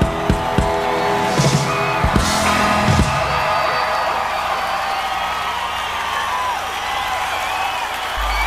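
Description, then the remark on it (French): A concert audience applauds after a live performance in a dense, steady wash of clapping that lasts a little while at an even loudness, with a few brief whoops and cheers rising out of it early on. “Alors je vais pas vous laisser hein, les applaudissements, hein, ça, dure un, ça dure un petit moment.”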